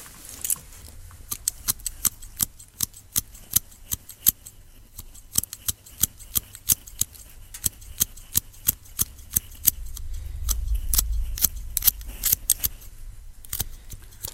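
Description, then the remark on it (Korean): Scissors snip while cutting and trimming hair in quick, crisp clicks, a steady run of dozens of metallic cuts with brief pauses, over a soft low rumble and no talking. “네, 가위 소리입니다. 머리카락 자르고 머리카락 다듬는”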